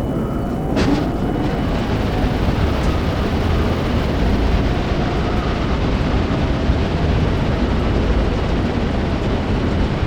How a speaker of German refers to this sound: Aktiviere Schleusengebläse, um den Sand draußen zu halten.